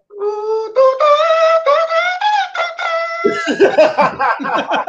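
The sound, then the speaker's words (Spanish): A voice imitates a blaring baseball stadium entrance trumpet fanfare: a run of loud, held brassy notes stepping upward, then a quick burst of choppy, staccato blasts. “¿Cómo son? las trompetas?”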